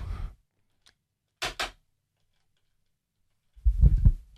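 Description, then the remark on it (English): A computer mouse that isn't working properly clicks twice in quick succession, a sharp double-click in otherwise quiet surroundings, with soft low thumps or handling noise just before and after. “Well, anyhow, the mouse isn't working here, so I can't really read everything.”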